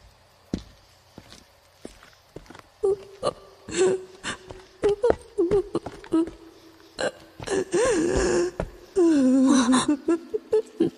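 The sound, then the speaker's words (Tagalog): A woman sobs beside a swimming pool at a resort in halting, hiccuping bursts, with wavering whimpers and catches of breath that grow more intense toward the end, broken by short clicks and pauses. “May babaeng umiiyak sa tabi ng swimming pool.”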